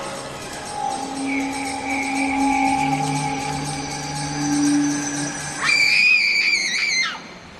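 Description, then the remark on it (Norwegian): Several women scream at once in a women's changing room as a man runs in, long, sustained, overlapping shrieks, ending in a very high, piercing cry that rises sharply before cutting off. The screams are loud, with no speech. “Så det kommer sånn dødskrig, så det høres ut som du er blitt eh, knivstukket på en eller annen eh, båt.”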